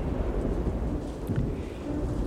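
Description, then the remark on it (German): A thunderstorm breaking with full force over the harbour of Bastia roars steadily, with deep rolling thunder rumbling underneath and a continuous hiss of heavy rain over it. The sound is loud, with no voices. “Das Unwetter brach los mit aller Macht, als wir buchstäblich in letzter Sekunde den Hafen von Bastia erreichten.”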